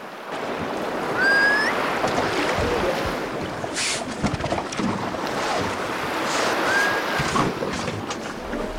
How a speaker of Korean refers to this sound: 저 소리가 숨비 소리라는 거죠? 응. 행여들은 왜 저런 소리를 내는 거예요? 물속에 오래 있으면서 참았던 숨을 한 번에 몰아서 내쉬면서 나오는 소리야. 아... 힘든 물질을 하지만 나 살아있다, 살아갈 것이다 라는 음... 걸 말없이 전하는 소리라고도 하고.